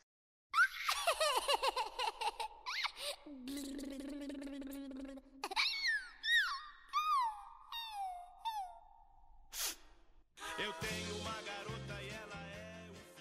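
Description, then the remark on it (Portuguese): High, squeaky giggling like a baby doll's laugh bursts out in repeated chirping runs over a bright, busy musical backing of a 1963 Brazilian rock song, ending with a denser instrumental passage. “que é uma música ridícula com umas risadinhas de, de bonequinho, não sei o que, aquilo, um bebê rindo.”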